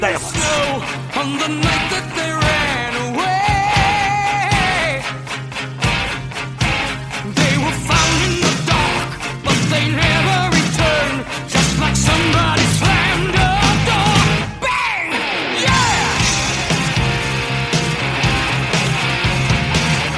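A loud 1980s heavy metal song plays continuously, with dense distorted guitars, pounding drums and a high, wailing male vocal, filling the whole stretch without any talk over it.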